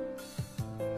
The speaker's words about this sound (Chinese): 那是铁锹的声音，他们正在挖蚯蚓。